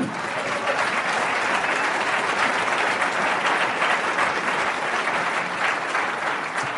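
Sustained audience applause, a dense, steady wash of many hands clapping at an even loudness throughout, with no talking over it.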